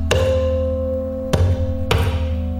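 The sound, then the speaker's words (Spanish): Three hollow thumps struck by hand on a plastic jug, each ringing with a deep, booming resonance that lingers between hits; the first two are widely spaced, the third follows sooner, fairly loud. “Soy yo haciendo percusión con un bidón.”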